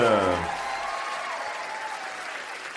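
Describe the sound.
A crowd bursts into loud, sustained applause, a dense wash of clapping that holds steady for a few seconds, with a voice briefly audible right at the start.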